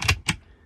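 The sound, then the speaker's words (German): A push-button latch on a cupboard door in a vehicle's kitchen clicks shut with two quick, crisp mechanical clicks in rapid succession, fairly loud, as the button is pressed to lock the door for driving, followed by quiet. “Man drückt auf einen Knopf”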